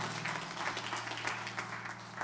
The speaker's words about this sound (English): God bless you. Give the Lord a good hand clap as you're being seated tonight.